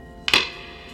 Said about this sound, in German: Als der Küchenbursche nach dem Mittagessen das Geschirr wusch, fiel hinter ihm plötzlich ein Stein auf den Küchenboden.